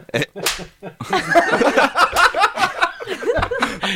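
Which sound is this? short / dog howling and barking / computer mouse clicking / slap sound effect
slap sound effect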